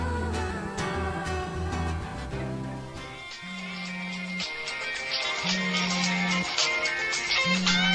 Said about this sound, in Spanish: ¿Suena un móvil?